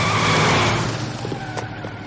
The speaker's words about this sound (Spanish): Isaac arranca y se marchan a toda velocidad.